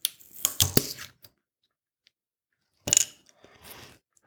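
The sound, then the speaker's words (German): A 0.33-litre glass bottle of a 4.9% alcohol drink being opened with a hand held over it: a quick cluster of sharp mechanical clicks and a muffled release rather than a clear pop, then a brief hissy rustle after a pause, with no talking. “Ja, so richtig plopp hat sich gemacht, aber wahrscheinlich, weil ich die Hand drauf hatte.”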